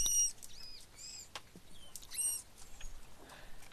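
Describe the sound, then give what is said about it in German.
A series of high, squeaky chirps and whistles from manatees, several short calls with brief gaps, some rising or wavering in pitch, over a faint soft rustling background. “Ich verrate es, Seekühe.”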